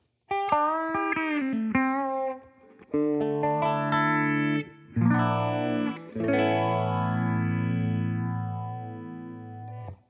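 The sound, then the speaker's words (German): Electric guitar played alone through effect pedals with the delay switched off, heavily modulated and distorted, with dense harmonic chords and sweeping pitch-shifted tones, no echo trails, loud, without voices. “Das sind halt schon mal so auch Kombinationen, die du halt nicht ganz genau über nicht immer so hörst, ne?”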